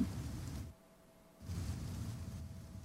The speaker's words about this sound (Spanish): Dejo la lluvia, pues. Vale. Voy a bajar un poquito la lluvia, que está alta.